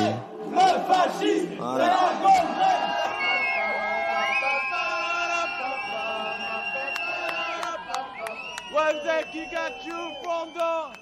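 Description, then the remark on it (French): A crowd chants and shouts together at a feminist protest march, voices rising in rhythmic bursts with a sustained chorus of many people, loud throughout. “c'était une manif féministe, mais alors ça je sais plus du tout quand c'est.”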